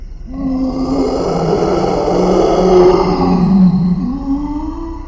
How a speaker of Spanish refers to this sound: En ese momento ella esbozó una macabra sonrisa de apertura inhumana, deformando su rostro a tal punto que ya ni siquiera parecía un ser humano, para posteriormente emitir un horrible alarido que sonaba más a un animal que a una voz de mujer.